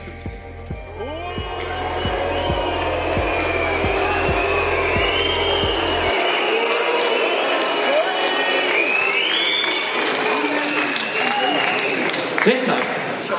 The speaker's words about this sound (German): Es wurde gepfiffen, ich wurde ausgebuht und sowas. Ja, also das war mir in diesem Maß nie äh, passiert.